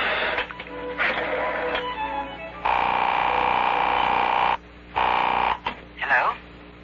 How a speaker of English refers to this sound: I'm dialing Marguerite, and you'll be able to hear for yourself.